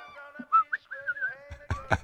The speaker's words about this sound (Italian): Oh, e basta fischiare, eh, che è il soffio di Satana.